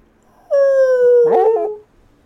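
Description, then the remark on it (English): A voice imitates a whale call: one long, loud moaning tone that slides slightly downward and breaks into a wavering warble at the end, with no other sounds around it. “I do speak whale.”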